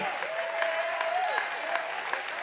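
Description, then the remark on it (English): Steady applause from an audience, many hands clapping in a dense, continuous patter, with a sustained high tone gliding briefly over it. “and it is okay if I clap my hands, and if I give somebody a high five, and if I dance a little bit.”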